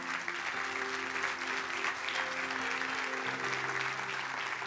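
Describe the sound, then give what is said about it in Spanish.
An audience applauds God steadily for several seconds, a dense wash of clapping with sustained organ or keyboard tones held underneath. “¿Le puede dar un aplauso a Dios por eso?”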